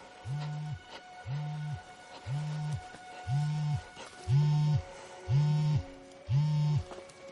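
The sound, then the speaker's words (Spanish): A mobile phone vibrates with seven low, evenly spaced buzzing pulses, each about half a second long, steady, with no one talking. “Un móvil comienza a vibrar.”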